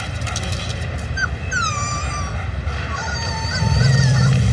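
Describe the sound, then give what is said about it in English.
A protective mother wolf growls low and steadily, the rumble swelling louder toward the end, while higher whining, honk-like cries rise and fall over it. No one speaks. “Not a puppy, a wolf. What now? He's a wolf. And that is its incredibly protective mother.”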